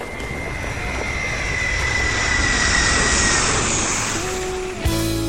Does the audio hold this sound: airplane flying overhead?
yes